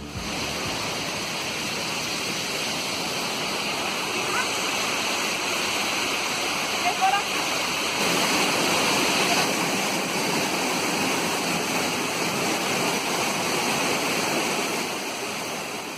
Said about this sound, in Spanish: Esa agua, ese lugar bello, esa cascada hermosa que acabamos de escuchar, fue grabada en 2014 en un viaje que hice ya hace varios años a la Cueva del Esplendor. Yo creo que es uno de los lugares más bonitos que tiene nuestro departamento